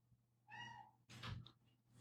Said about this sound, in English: Sorry for my cat in the background. He wants to be in here so bad. Um, but I intentionally left him out of the room because he likes to just, he just wants attention